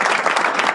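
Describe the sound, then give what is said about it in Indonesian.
A short burst of hand clapping, many overlapping claps forming a steady crackling patter at an even level, with no voices. “udah tepuk tangan lah ya”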